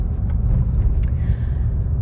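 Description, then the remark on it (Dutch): A steady, heavy low-frequency rumble fills the inside of a moving car, constant, with faint higher ticks and a soft whine drifting over it. “Het geluid is misschien wat slechter. En dat komt omdat ik in de auto zit.”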